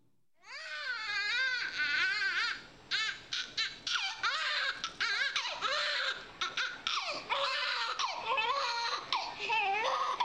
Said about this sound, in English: Now, look, we're in a hospital room, she's uh, sticky and she's baby and all that stuff, and she's in the middle of crying.